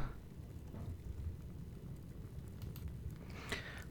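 A crackling fireplace, the background sound Fireplace.web made by Inchadney, burns steadily, a low rumbling roar with scattered sharp pops and snaps, including a brighter crackle near the end. No voices.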